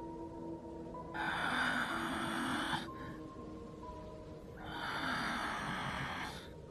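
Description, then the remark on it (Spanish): Slow, heavy breathing of a mother, two long rasping breaths with broad hissy noise, rising and falling over a low steady hum, no talking. “Su respiración era pesada.”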